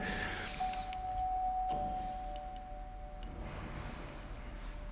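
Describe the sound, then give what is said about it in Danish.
A church bell rings the second signal before the choir service, with a steady, humming tone that lingers between strikes, over faint background noise, with no one speaking. “Ja, kirkeklokken, som vi hørte for nogle minutter siden. Det var altså første signal. Det her det er andet signal.”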